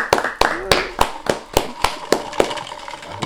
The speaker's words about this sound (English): I clap to that.